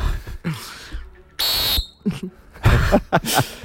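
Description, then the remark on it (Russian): A single short, shrill referee's whistle blast sounds loud for under half a second, surrounded by brief breathy, rustling bursts. “я подозревал, что это одни и те же свистки, но я уже себе не верю.”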